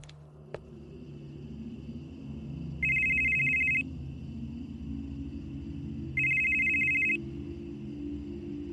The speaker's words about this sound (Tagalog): Sakto namang narinig kong tumunog ang cellphone ni Mang Paterno nang papalapit na ako sa pinto ng kwarto niya